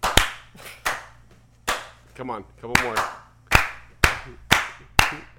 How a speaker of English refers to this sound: All right, let's clap it out, big guy.